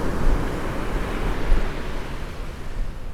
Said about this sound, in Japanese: 特にお話ししなくても波の音があればいいかなと思ってライブやってます